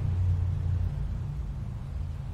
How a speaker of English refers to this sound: It's a motorbike. What a loud bastard.